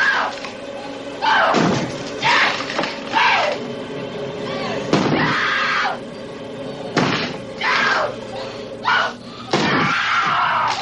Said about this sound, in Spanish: Al otro lado, Wendy ve cómo la puerta se va astillando a cada golpe de hacha.